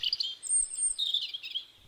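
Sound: european robin song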